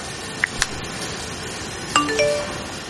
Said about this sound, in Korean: 문자 메시지 도착음이 울렸다.